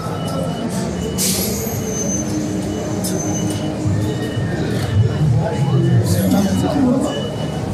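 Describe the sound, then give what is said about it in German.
Ghost train ride cars of a ghost castle attraction rumble steadily along their rails, with occasional metallic wheel squeals cutting through, while a murmur of voices carries in the background of a busy fairground. “Geisterbahn. Ich gehe mal hin, vielleicht kann man was hören.”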